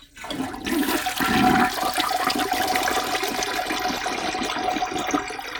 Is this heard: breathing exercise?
no